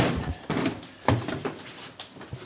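A door being opened, with a few knocks, rattles and a scraping slide over a couple of seconds, moderately loud, with no one talking.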